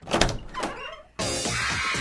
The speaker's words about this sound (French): J'arrive, je vous ouvre la porte.